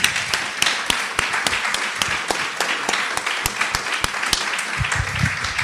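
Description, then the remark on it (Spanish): A crowd applauds for comics artist Cacho Mandrafina, many hands clapping in a dense, continuous patter with sharp individual claps standing out, sustained at an even loudness throughout with no talking over it. “Antes antes habíamos hablado de Cacho Mandrafina, que también un aplauso.”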